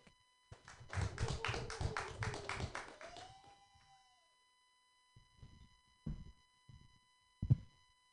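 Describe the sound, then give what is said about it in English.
A short burst of audience applause for a comedian being introduced swells for about three seconds and then fades, followed by a few scattered thumps and knocks. “let's give a big round of applause for Mark Palchik”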